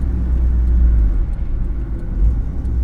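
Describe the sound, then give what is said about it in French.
A steady, loud low rumble of a car cruising at speed on a motorway at night, engine and road noise droning evenly throughout with no voices. “La nuit, seule, dans la voiture, je le sens.”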